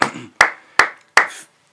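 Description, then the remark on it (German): Four sharp, loud claps in a steady rhythm, about two per second, each followed by a short ringing tail, as clapping goes on outside at nine o'clock; nobody speaks. “Du, oh, das Klatschen ist so laut.”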